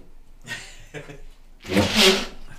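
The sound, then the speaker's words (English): A single sneeze: two short, breathy catches build up before a loud, sharp burst of air that fades quickly. No one speaks during it. “Bless you.”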